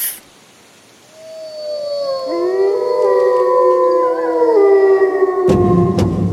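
wolf howling

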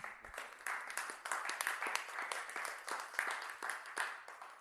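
applause sound effect

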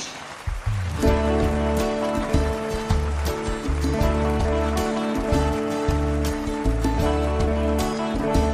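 loud audience applause

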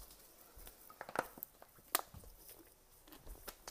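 sipping water

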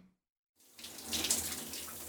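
shower water running

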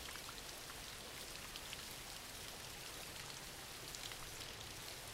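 rain falling

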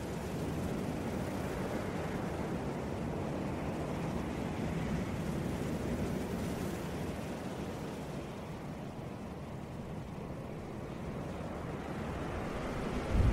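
ocean waves

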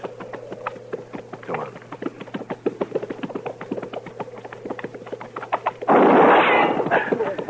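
gunshot

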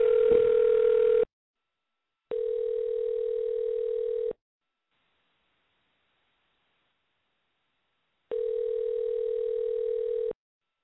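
phone dial tone

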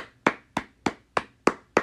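round of applause

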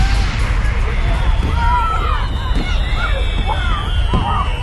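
fireworks exploding

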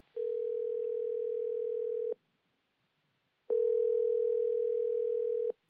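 phone line ringing

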